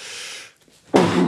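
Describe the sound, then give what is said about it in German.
A single loud sneeze bursts out suddenly after a soft breathy lead-in and a brief pause, with no talking. “Gesundheit und Danke.”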